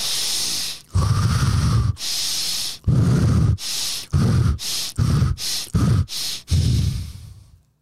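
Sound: rapid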